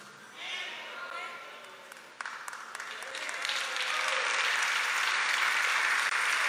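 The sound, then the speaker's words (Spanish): During a sermon, an audience breaks into applause: dense, crackling clapping that starts moderately, then swells louder and holds steady, with some crowd voices mixed into the noise. “Se está dando un aplauso, no te está saliendo.”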